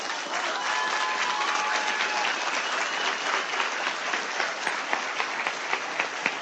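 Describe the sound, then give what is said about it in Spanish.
An audience at a Samway Business Institute presentation applauds steadily for several seconds, a dense wash of many hands clapping at an even loudness, with a few sharper individual claps standing out toward the end. “Débele un fuerte aplauso.”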